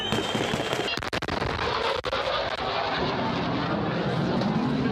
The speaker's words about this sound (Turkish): Evet bir bir silah sesi daha şu anda. Şu anda kalabalığın üzerine ateş açılıyor. Şu anda şu anda kalabalık buraya gelmişken ateş açıldı.